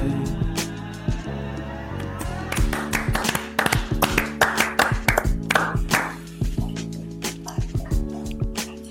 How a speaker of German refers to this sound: Und wir applaudieren uns selber für eine gute Zeit, ihr wisst Bescheid.